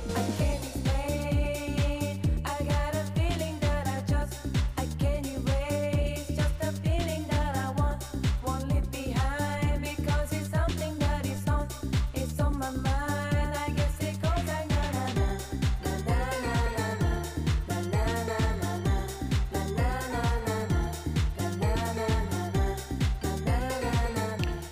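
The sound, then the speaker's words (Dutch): A loud, steady house dance track plays throughout, with a pounding four-on-the-floor kick, crisp hi-hats, a driving bassline and bright synth chords, no talking over it. “En in ons ogen wel de lekkerste qua, qua dance, house-achtig hit.”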